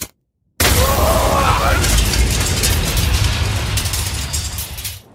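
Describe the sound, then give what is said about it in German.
After a moment of silence, a food truck explodes on a street at night: a huge, loud blast, followed by a heavy, roaring rumble with crackling debris that slowly fades over several seconds. “Eine gewaltige Explosion erschütterte die Nachtruhe.”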